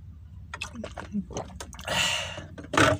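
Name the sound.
drinking water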